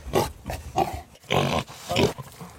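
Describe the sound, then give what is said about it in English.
A pig snorts and grunts in a rapid string of bursts, fairly loud, with longer rough snorts near the middle and end. No one speaks over it. “So this is a grunt the pig freedom snort, oh.”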